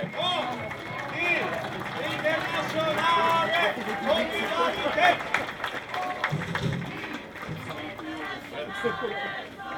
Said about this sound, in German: So, also nochmal großen Applaus für die Landesschülerinnenvertretung.